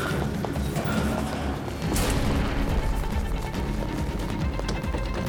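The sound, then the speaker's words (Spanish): Heavy banging and a loud crash as a fleeing man shoves something heavy against a workshop door to block it, with scuffling and rumbling throughout, fairly loud. “La bloqueó con algo pesado.”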